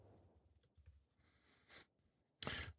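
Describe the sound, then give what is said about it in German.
Faint, irregular computer keyboard typing, scattered soft taps with a couple of louder bursts of rapid key presses near the end, heard alone without any talking. “Ja, ich höre euch auch in die Tastatur hacken.”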